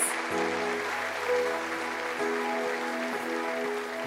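An audience applauds God after a prayer, a dense wash of clapping that holds at an even volume throughout, with sustained tones from a keyboard or organ playing underneath.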